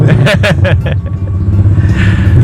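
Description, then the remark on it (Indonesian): Motorcycles rev at a racing circuit not far away, a loud, steady engine rumble that swells and drones throughout, while brief snatches of voices sound at the start. “masih ada suara-suara motor diabaikan saja ya kan? kita memang tidak bisa terlalu jauh dari sirkuit”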